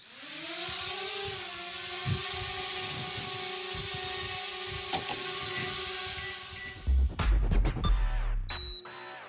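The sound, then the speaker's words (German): Buzzing quadcopter drone propellers whine steadily with a high, harmonic tone that rises slightly, loud, ending with a burst of clattering, thumping noise near the end. “Heute in CT Uplink drei richtig interessante Themen: Drohnen, Drohnen und”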